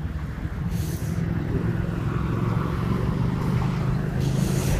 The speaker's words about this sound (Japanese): ちょっと車通るところでね、信号の待ちのところがあるんで、少々お待ちください。